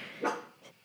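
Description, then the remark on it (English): A dog named Tubby barks twice in quick succession at 1 a.m., as if someone were at the door, a sharp louder bark followed by a softer, shorter one, with no one speaking. “She's like having a fit because she thinks someone's at the door, but there's really no one at the door because it is 1 a.m.”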